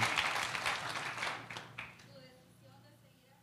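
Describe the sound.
An audience breaks into dense, loud applause that fades over about two seconds, leaving softer murmuring voices and faint tones behind.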